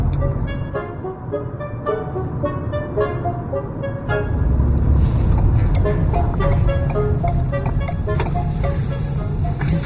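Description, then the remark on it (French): Inside a quietly moving electric car: a steady low road rumble with a soft tonal motor whine, growing slightly fuller and louder partway through, with no one talking. “le silence d'une auto électrique, hein?”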